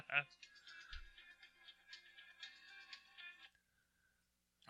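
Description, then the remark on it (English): A mobile phone ringtone for an incoming call plays a bright, melodic electronic tune for a few seconds before cutting off into near silence, without talk over it. “Mr. Professional didn't turn his phone off.”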